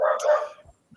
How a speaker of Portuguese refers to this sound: Tem um cachorro latindo, criança berrando, mas vamos lá.